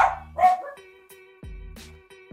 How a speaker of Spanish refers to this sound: Ladran los perros. Ve, se ladran los perros, güey.